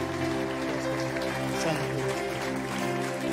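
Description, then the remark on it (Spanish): An audience gives a loud round of applause to Jesus, a dense, steady wash of clapping that holds for a few seconds, with sustained musical tones droning underneath. “Damos un fuerte aplauso a Jesús.”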